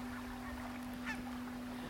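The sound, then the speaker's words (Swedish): A single goose honk rings out partway through, over a steady low droning hum, with faint background noise throughout. “Men här härskar annars putgässen och en flock på 43 mindre sångsvanar vars högljudda skällande först sätter myror i huvudet på oss.”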